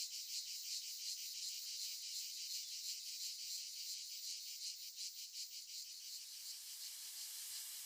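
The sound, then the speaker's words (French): A simulated tinnitus sound: a shrill, continuous high-pitched buzzing drone, much like a chorus of cicadas, with a fast pulsing texture that holds steady throughout. No voices are heard. “Ça ressemblait un peu à des cigales.”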